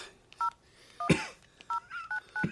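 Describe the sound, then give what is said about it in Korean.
A series of short electronic keypad beeps, about six crisp dual-tone presses in an uneven rhythm, with a brief rustle and thump between them, as someone punches a phone number into an old flip phone. “예 찍어. 뭘요? 아, 번호.”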